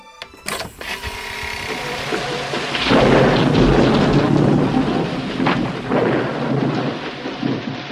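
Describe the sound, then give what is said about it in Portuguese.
A thunderstorm with heavy rain pouring steadily, a deep rolling thunder rumble swelling midway and lingering under the dense hiss of rainfall. “Lá no passado tá chovendo.”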